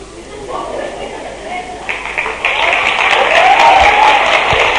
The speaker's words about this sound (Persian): این دستی که میزنم یعنی خدا انشالله هدایتتون کنه